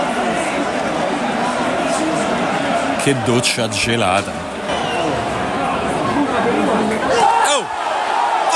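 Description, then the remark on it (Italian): Steady stadium crowd roar of Spezia away fans cheering and chanting after a Spezia goal during a Pisa–Spezia football match at the Arena Garibaldi fills the background throughout, a broad wash of fans, while a man speaks excitedly over it. “Eh, lo Spezia segnato con il numero 80 I Tifosi dello Spezia si fanno invece sentire.”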